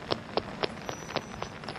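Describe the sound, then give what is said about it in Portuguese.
Quick, evenly spaced footsteps of a woman running off, about seven sharp steps in under two seconds, growing slightly fainter toward the end as if moving away, with no voices. “Ela pega o cartão e sai correndo, olhando para trás com uma cara de assustado.”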